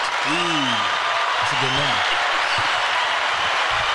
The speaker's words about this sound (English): Thank y'all. Thank y'all. Hold your applause. Hold your applause. Thank you. Thank you.